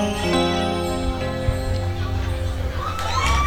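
A crowd cheers and applauds for a young jazz player in a loud, steady roar of clapping and shouting, with high excited whoops rising toward the end.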